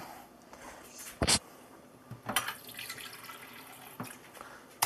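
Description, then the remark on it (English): Water runs from a tap with a steady splashing hiss as extra water is added to a mixture, broken by a few sharper bursts and clinks as the stream hits something. No one speaks. “Okay, we're going to add in some extra water.”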